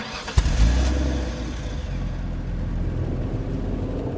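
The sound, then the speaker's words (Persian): A car engine is started and catches with a sharp jolt, then settles into a steady low rumble as the vehicle pulls away, the droning engine noise continuing with no voices. “ماشین رو روشن کردم و راه افتادیم”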